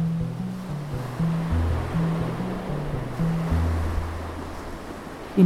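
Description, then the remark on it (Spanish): Steady roar of cold ocean surf washing continuously onto the shore, fairly loud, with low sustained droning tones shifting beneath the rushing water. No one speaks. “El agua está fría, las olas rugen.”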